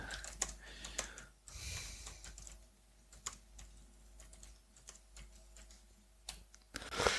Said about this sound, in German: Ja, ähm, aber wir müssen mir ja nicht beim Tippen zuhören.